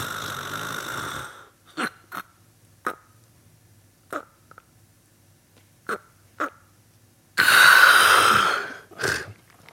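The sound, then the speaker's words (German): A voice imitates snoring with breathing pauses: a rough snore, then a run of short, choked snorts separated by silent pauses, then a long, loud rasping snore and one last brief snort, clear. “dann kommt es zu Atemaussetzern, wie ich Ihnen gerade gezeigt habe”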